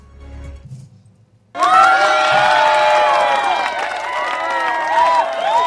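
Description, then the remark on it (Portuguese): After a brief quiet moment, a crowd bursts into loud, sustained applause and cheering for the people of the municipality of Ararendá, with many voices shouting and whooping over continuous clapping that stays strong to the end. “Palmas, aplausos para o povo de Ararendá.”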